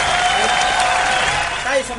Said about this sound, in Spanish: Excelente. Aplauso para Relator 5.